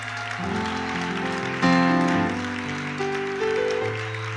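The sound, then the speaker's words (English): An audience claps steadily in a dense, continuous wash of applause, mixed with sustained organ-like chords that shift in pitch, with no one speaking. “Somebody clap their hands and say, Praise the Lord.”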